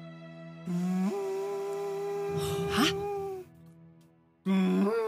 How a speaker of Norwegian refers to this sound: Hva er det for noe? Oi, Vet vi hva det her betyr? Det er lyden av horn. Ja, det er det. Eh, dere som har vokst opp i Ankerstader, vet at dette betyr eh, angrep.